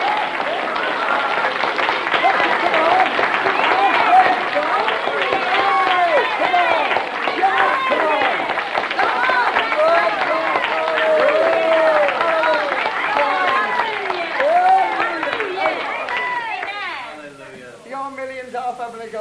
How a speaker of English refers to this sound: Oh, clap your hands, all ye people in Paddock Wood. Shout unto God with a voice of triumph. So clap your hands and praise the Lord. Come on.